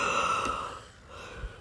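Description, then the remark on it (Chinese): A long, deep inhale drawn in through the mouth, breathy with a slight voiced edge, lasting under a second before trailing off into quiet with a soft low bump at the end. “河马深深吸了一口气”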